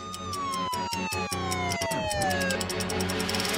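A loud siren of arriving police wails in a long, steadily falling tone over a constant rumble, with a few sharp knocks at the start and no voices.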